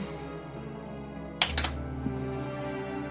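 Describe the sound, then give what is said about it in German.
Dice are rolled for initiative in a tabletop role-playing game, giving a quick burst of three or four sharp clattering clicks, then one softer tap, over a low steady background drone. “Würfelt bitte auf Initiative.”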